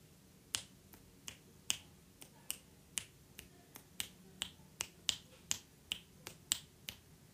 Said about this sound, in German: Ich habe geschnipst.